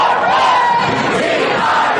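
A packed crowd of Kentridge students roars and cheers in the stands during player introductions, a dense, continuous wall of sound, loud and steady throughout with overlapping voices shouting together and no individual speech standing out.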